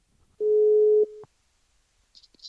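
A single steady electronic ringback tone on a phone line, humming for under a second before cutting off, followed by silence and a few faint clicks.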